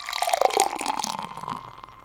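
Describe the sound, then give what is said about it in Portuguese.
Water pours into a glass in a steady stream, bright and splashy for about two seconds before tapering off. No voices are heard. “E neste exato momento, irmanados em pensamento com os amigos espirituais que nos acolhem e envolvem, recebamos nesse copo d'água”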